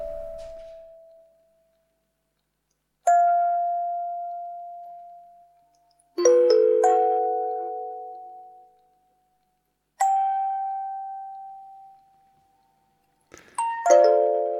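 Sparse electronic tones sonified from the structure of a neighbourhood with dense buildings and little light, air and space ring out one at a time, about five bell-like strikes a few seconds apart, some stacked into brief chords, each decaying slowly into silence. No voices.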